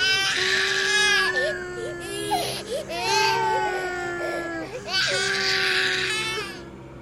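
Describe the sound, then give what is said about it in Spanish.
Eerie, drawn-out wailing of young, childlike voices, the laments of young souls at the San José dam, rising and falling in long sobbing cries that swell in several loud waves over about seven seconds, with no words spoken. “Alguna vez se escucharán los lamentos, las almas jóvenes, anunciando que la presa de San José se reventará.”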